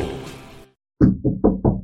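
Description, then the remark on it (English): Four loud knocks on a door in a quick, slightly uneven rhythm, following a brief fading hum and a moment of silence. “when suddenly there was a knock at the door.”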